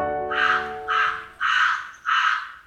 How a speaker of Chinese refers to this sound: 哦，乖乖，这是乌鸦的叫声。